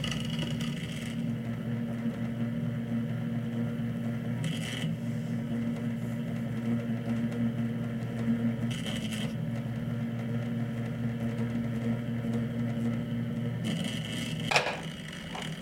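A horizontal lathe, with a motor turning a horizontal steel rod, hums steadily throughout while someone brushes urushi lacquer onto a bowl, with soft rubbing swishes recurring every few seconds. The bowl is a Nakagawa Masashichi Shoten product being made. There is no talking.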